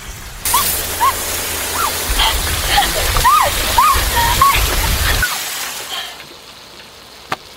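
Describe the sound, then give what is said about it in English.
A loud, steady rush of water spraying from the biggest water blaster ever sold splashes for about five seconds while excited voices yelp and squeal over it, then the spray cuts off abruptly. “Is that the biggest water blaster ever made?”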